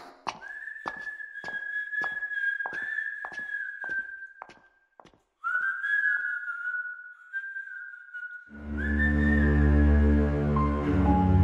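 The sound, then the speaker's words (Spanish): A patient wandering the corridors of a clinic whistles a slow, wavering tune while footsteps thud evenly beneath it; near the end a low droning hum swells up and fills the background. “El pobre anda deambulando por los pasillos y silbando.”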